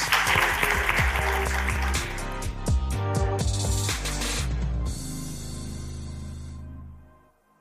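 Sustained audience applause, a dense wash of clapping mixed with low musical tones, that holds steady for several seconds before thinning and fading out at the end. No one speaks.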